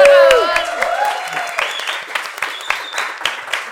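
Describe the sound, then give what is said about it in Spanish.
Canned applause, recorded from a few people clapping several times, plays to welcome a guest: a steady crackle of many clapping hands, opening with a bright cheer-like tone that slides down, then continuing as even, dense clapping that holds for several seconds. “Son puros aplausos grabados y risas grabadas.”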